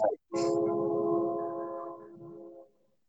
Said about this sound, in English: Hey, what was that? There's an air horn right now. There's a train because in where I uh, live is a train track, and they just love, you know, blowing the horn that's their favorite pastime.